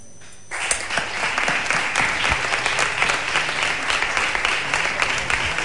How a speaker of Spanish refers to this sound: esta ovación, este aplauso por las palabras de Monseñor Don Santiago Gómez a todos los presentes en la capilla del Santuario Diocesano del Conquero.